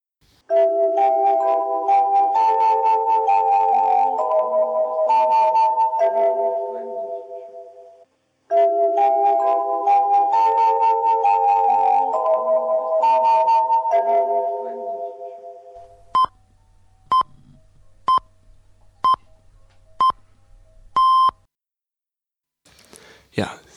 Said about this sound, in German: nach der wunderbaren Einführungsmelodie von Radio Mayak, einer der größten unionsweiten Radiostationen der Sowjetunion